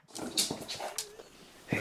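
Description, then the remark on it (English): A dog named Murphy, asked to bark once for yes and twice for no, whines and yips in a quick run of short, high-pitched sounds, moderately loud, with a brief sharper yelp at the end. “please bark once for yes, twice for no.”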